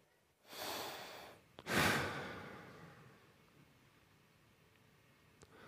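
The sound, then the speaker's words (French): Two breathy exhalations voiced by a person imitating breath: a long airy outbreath, then a stronger, louder one that fades slowly into quiet, without words. “Et puis les rabbins, vous savez, ils disent que la réponse que Moïse entendit, ou plutôt le son le plus proche qui aurait été la réponse des dieux fut le bruit d'une respiration.”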